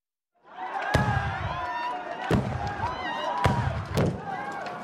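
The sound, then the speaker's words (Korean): Four sharp, loud gunshots crack out at uneven intervals over the continuous roar of a chaotic crowd shouting and yelling, dense throughout. Armed police storm a cult ritual of nearly 100 cultists, and gunfire rings out during the brawl as people flee. “난투극이 벌어지는 가운데 쉬지 않고 총성이 울렸고 도망자들이 속출했다.”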